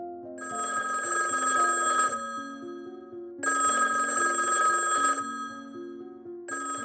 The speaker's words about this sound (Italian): Una mattina il telefono squilla impertinente negli uffici della Mattel.